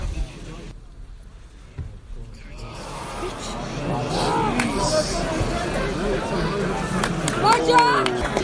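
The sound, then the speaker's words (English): A large rugby stadium crowd reacting to a goal kick, hushed at first, then swelling into a rising roar of cheers and shouts that builds steadily and stays loud through the end. “We'll just wait and see if he if he managed to get it, and we'll let the crowd tell you whether he does or not.”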